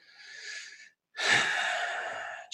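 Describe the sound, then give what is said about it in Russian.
A person demonstrates a deep, relaxed breath: a slow, airy breath in, a brief pause, then a long, loud, steady exhale, with no talking. “То есть, когда нам хорошо, мы глуб, дышим автоматически глубже.”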